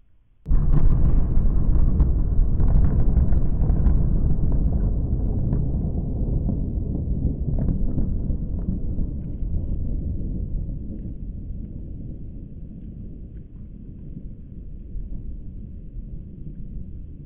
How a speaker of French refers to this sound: Effectivement, dans les années d'après-guerre, l'environnement sonore se caractérise par un monde plus percutant, que ce soit dans les explosions atomiques, comme celle que vous venez d'entendre, ou dans l'intensité et la densité de l'espace urbain.